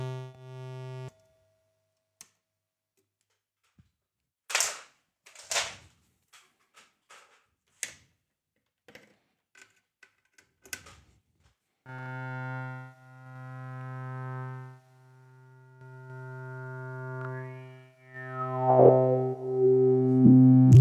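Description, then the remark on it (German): Electronic modular synthesizer tones, the noise run through a filter: a sustained buzzy drone, then a run of sharp clicks and bleeps, followed by a resonant filtered hum that swells and sweeps, sounding like a sci-fi spaceship. “Weil das Geräusch direkt natürlich super langweilig ist, packen wir das noch durch einen Filter.”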